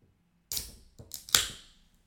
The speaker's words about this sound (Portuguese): Canada Dry. Canada Dry, vou abrir agora. Malta, esta lata.